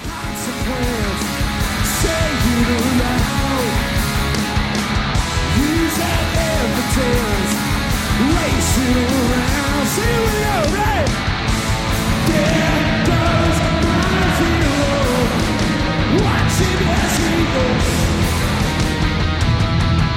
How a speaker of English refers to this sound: again a genuinely incredible moment, and even like I think even in audio, you can, like the sound of those drums, the sound of that crowd, the sound of people singing along.